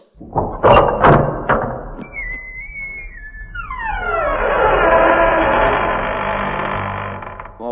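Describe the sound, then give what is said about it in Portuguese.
A door-opening sound effect: a few heavy thuds, then a thin whistling tone gliding downward, followed by a long, loud, creaking whoosh that swells and lingers. No one speaks. “Agora, meus amigos, chegando a hora de nós darmos uma passadinha lá no Shop Serra Talhada que abram-se as portas.”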